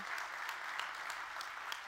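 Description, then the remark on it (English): An audience claps their hands together in steady, dense applause, many overlapping claps forming a bright, continuous wash of sound with no voices standing out. “Can we give him a great big hand clap?”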